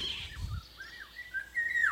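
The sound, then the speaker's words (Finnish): A fluting, melodious bird song of a Eurasian golden oriole, recorded last spring: looping whistled phrases that rise and fall, growing louder toward the end, with a low rumble at the start and no talking. “viime keväänä, eli vuosi sitten äänit pari päivää ja nimenomaan oli tarkoitus äänittää kuhankeittäjä”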